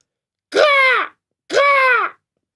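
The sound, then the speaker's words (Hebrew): A voice imitates a crow with two loud, harsh cawing calls, each about half a second long, separated by a short pause, with no other sounds, as the crow in a story, painted white and living among doves, calls out loudly. “בא העורב ליונים, אכל ושתה איתן, היה שמח, והתחיל לקרוא בקול רם.”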